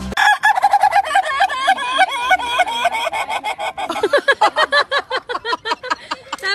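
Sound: rooster crowing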